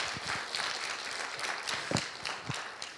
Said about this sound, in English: And then we've all, yeah, let's do that. Let's clap for that. That's awesome.